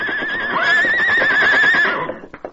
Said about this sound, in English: Phil Muncie, his gun held on the backs of Joe and Osco, withdrew into the cabin and closed the door as the crooks walked cautiously to where their horses whinnied nervously.